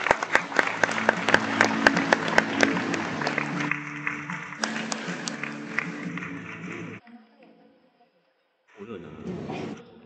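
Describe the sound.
Audience applause, a dense, steady patter of many hands clapping over a low sustained tone, runs for about seven seconds, stops abruptly, and after a brief silence a voice begins.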